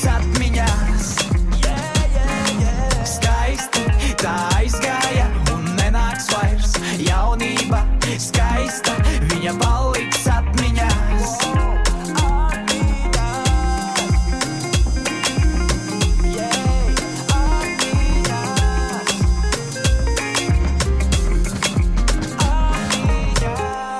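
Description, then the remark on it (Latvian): A loud, steady Latvian rap song, played on the radio for the first time, with a punchy, syncopated reggaeton-style beat, heavy bass kicks and dense layered synths running continuously without pause. “nu, ir nedaudz uh, ragatona motīva, ir.”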